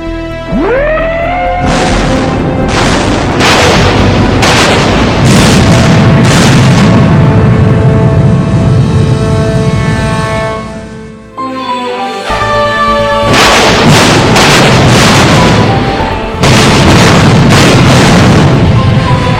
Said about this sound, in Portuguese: da salva de canhões, o Bismarck acertou o paiol de munições do Rude, provocando uma grande explosão.